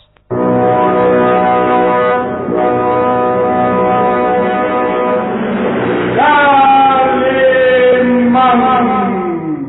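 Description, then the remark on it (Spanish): An ocean liner's horn, sounding as the ship crosses a bay to announce its arrival at Tangier, Morocco, wails loudly and steadily for nearly ten seconds, a deep, rich droning tone that lurches to a new pitch partway through and then sags slightly downward, with no talking. “La sirena ululaba anunciando su llegada a Tánger, la ciudad exótica del misterio y la leyenda, la puerta de entrada a las tierras de Marruecos,”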